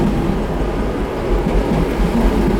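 A train passes on one of Norway's busiest railway lines, right next to Trine Skei Grande's home and garden: a steady, loud low-frequency roar with rattling wheels on track, filling the whole moment without any voices.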